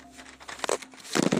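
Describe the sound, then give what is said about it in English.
Crinkling of a plastic wrapper being pulled off a beef and bean chimichanga in a kitchen in Los Angeles, California, a few soft rustles building into a louder burst of crackly crumpling near the end. “Looks like we removed the chimichanga from the wrapper.”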